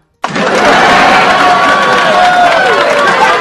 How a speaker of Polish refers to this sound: brawa chcę tutaj mieć. Gdzieś tu były brawa, szukam braw.